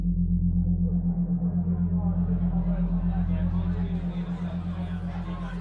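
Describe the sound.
A continuous murmur of indistinct crowd chatter fills a busy pub, with many voices blending together over a steady, droning low hum that persists throughout.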